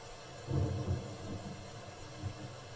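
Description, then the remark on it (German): Heavy rain pours down in a steady, dense hiss, with deep low rumbles swelling briefly underneath a couple of times. No one speaks. “Scheiß Regen, ich höre doch kaum was.”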